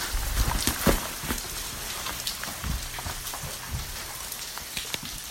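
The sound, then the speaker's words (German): Water drips steadily inside a glacier cave on the volcano Mount St. Helens, a dense patter of irregular drops, some sharper and louder plinks standing out over a constant wet hiss. No voices. “Wir befinden uns in einer Höhle, in einem Gletscher auf beziehungsweise in einem Vulkan.”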